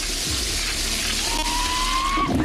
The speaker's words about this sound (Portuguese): Descarga, descarga aí descarga.